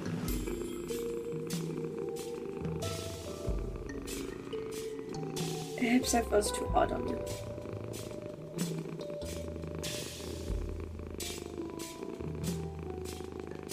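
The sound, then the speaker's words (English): A low, rhythmic purring rumble runs steadily through the whole stretch, fairly loud, a voice imitating the creature Oddbody purring as it is petted, while someone speaks over it. “Um, I think Oddbody purrs. Uh. Huh. That's a new noise.”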